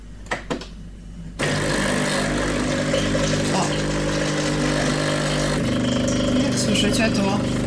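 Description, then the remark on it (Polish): A couple of sharp clicks as a button is pressed, then a coffee machine starts its descaling cycle with two cups of water and acid, a steady, loud mechanical pump hum and buzz that runs continuously and shifts tone slightly toward the end. “ten ekspres właśnie jest odkamieniony.”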